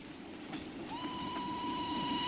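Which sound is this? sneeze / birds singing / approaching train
approaching train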